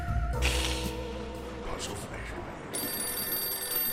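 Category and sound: signal or alarm, telephone ringing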